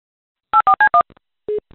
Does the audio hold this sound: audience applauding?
no